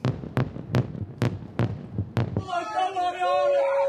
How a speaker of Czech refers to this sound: Výbuchy zachytila z dálky i kamera štábu České televize.